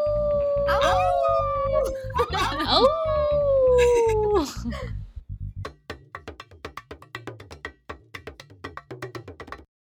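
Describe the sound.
A werewolf howl, long and wavering, rising and falling in pitch for several seconds, a brief exclamation over it, followed by a quick run of sharp, irregular tapping sounds.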